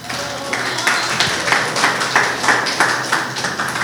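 An audience applauds a person called up from the audience as an example: a dense patter of many hands clapping at once, steady and moderately loud for several seconds with small swells in intensity.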